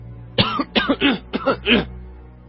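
A burst of loud, harsh coughing, about five rough, throaty hacks in quick succession over roughly a second and a half, then quiet. No one speaks.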